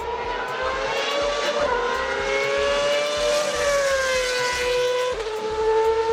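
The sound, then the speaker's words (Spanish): A shrill, screaming Formula 1 race car engine from around 2012 roars steadily at high revs, its pitch climbing and dipping with quick gear changes. It is loud, with no voices. “El ruido que mucha gente identifica como así suena la Fórmula 1 son los vehículos de como el 2012.”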